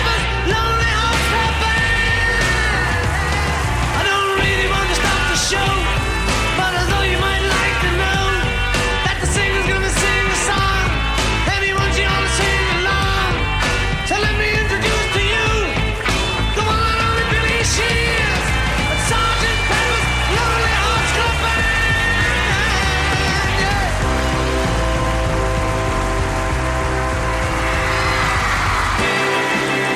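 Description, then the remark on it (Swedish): A loud, dense rock song by a classic rock quartet plays throughout, influenced by psychedelia and the wave of new San Francisco bands, with distorted electric guitars driving over steady pounding drums and a full band sound from start to finish. “Sättningen var den klassiska rockkvartetten med distade elgitarrer, influerad av psykadelia och vågen av nya band i San Francisco.”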